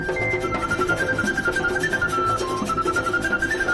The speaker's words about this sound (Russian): Саламури, вот эта вот дудочка как раз.